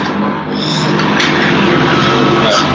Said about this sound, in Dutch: Ja de trein. Terwijl de trein even voorbij komt. Die zit naast een spoor of zo.